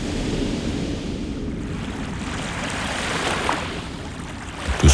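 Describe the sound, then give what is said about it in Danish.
Steady, broad wash of long, flat waves rolling continuously onto the edge of a narrow beach below summer houses, with a soft windy hiss on top and a slight swell near the end. “Langstrakte, flade bølger fejer ind mod strandkanten, men alligevel mærker man tydeligt, at vandet suger udad.”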